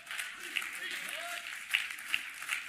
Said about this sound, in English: Psalms 47, verse 1 clapping and shouting. Clap your hands, all you nations. Shout to God with cries of joy.